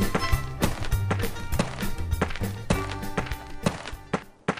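A steady series of footsteps, about three per second, thumps along at a brisk pace, distinct, with a low sustained hum or musical tone running underneath: an old man walking past on his way to buy something at a shop.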